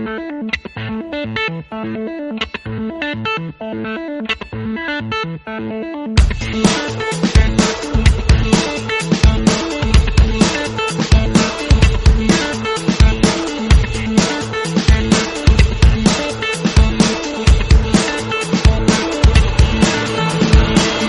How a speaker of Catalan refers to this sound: ho farem escoltant una miqueta més d'aquest àlbum del … de la banda …